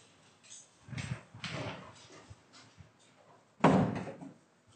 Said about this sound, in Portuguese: Uma porta ia bater aqui.